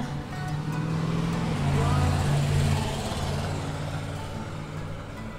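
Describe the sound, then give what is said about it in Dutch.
A steady roar of traffic on a very busy road, heard while walking right alongside it, with low engine rumble from cars and trucks going by, swelling louder in the middle before easing. Faint speech-like sounds sit under the noise. “lopen we hier dus vlak langs die hele drukke weg.”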